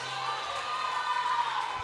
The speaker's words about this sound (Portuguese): Se é para aplaudir, aplauda com gosto. Aplauda Jesus.